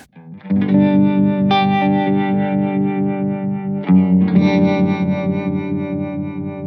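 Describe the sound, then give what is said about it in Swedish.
An electric guitar plays sustained, slightly overdriven chords through an Insulanen tube amp, its bias tremolo, working on the power tube, throbbing in a steady, quick pulse; a new chord is struck partway through, with no voices. “har ju bias, ja, jättefint bias tremolo ja, till exempel.”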